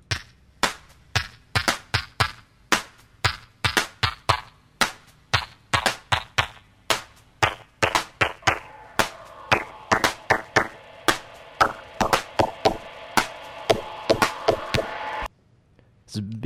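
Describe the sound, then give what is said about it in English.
A punchy drum break sample from a sample pack, sharp, rhythmic hits looping steadily while a filter sweeps its tone from bright and high down toward darker and lower, ending abruptly near the close. “Yeah, that's a, a bit of a break with a filter sweep on there. It's going from high to low.”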